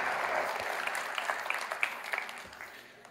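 An audience applauds steadily for a few seconds, a dense wash of many hands clapping with crisp individual claps popping out, gradually tapering off toward the end.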